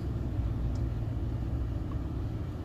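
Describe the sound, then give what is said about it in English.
A bicycle fitted with a small engine, not an e-bike, with a big cargo carrier on the back, drones with a steady, low rumble, holding an even loudness throughout with no voices present. “It's not an e-bike. That's a damn. Got an engine on it.”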